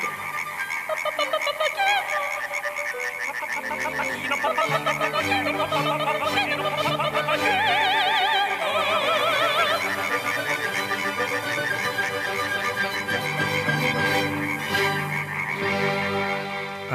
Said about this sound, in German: Und man hat dort mal energetische Messungen gemacht. Das gehört zu den größten Aufwänden, die man im Tierreich überhaupt kennt, erhöht die Lautgebung bei Laubfröschen. Selten erlebt man so gut besetzte Konzerte.